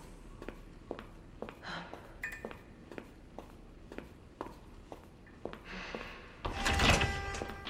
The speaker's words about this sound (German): Sie öffnete eine Sicherheitstür.